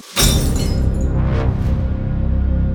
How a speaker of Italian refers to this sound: Il bicchiere gli scivola dalle mani, inondando il pavimento di frantumi di cristallo.